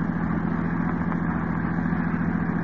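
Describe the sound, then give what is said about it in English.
A car engine runs steadily with a low, continuous rumble and hum as the car drives slowly off the road to park, with no voices over it. “This looks like as good a place to park as any. I'll drive the car off the road.”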